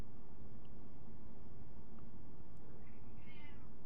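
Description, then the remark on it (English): A cat named Sonny gives a short, quiet meow near the end, heard faintly in the background over a steady low hum of room noise, with no one talking. “that was my cat in the background giving a little noise and a little background mm, mm, information from him.”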